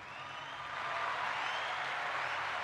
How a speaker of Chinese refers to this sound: 谢谢今 天收听，我们来来一个掌声。